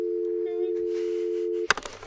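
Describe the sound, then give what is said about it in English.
A steady, continuous telephone dial tone hums loudly for about a second and a half, then cuts off abruptly with a sharp click and a brief clatter. “All right, and then you get dial tone.”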